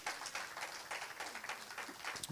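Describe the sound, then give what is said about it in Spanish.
A crowd claps steadily in applause to God, a dense, continuous patter of many hands filling the space, fairly loud, with no clear talking over it. “Quiero que des un aplauso a Dios, despiértate.”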